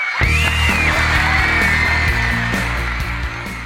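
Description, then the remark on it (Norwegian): A voice imitates a screaming crowd of girls, a loud, shrill, continuous squeal with a rough, noisy edge that holds steady for a few seconds without pause. “Kameraet kaster seg raskt over et skrikende jentepublikum, og i enden av salen ser vi …”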